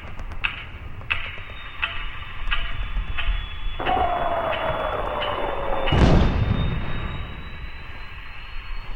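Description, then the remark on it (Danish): A metronome ticks at a steady, even pace over a low rumbling background in wartime Leningrad, joined by a falling whine and then a heavy boom that partly buries the later beats. “Hver gang du hører cirka 10 slag på metronomen, er der en et sted i den her by, som dør.”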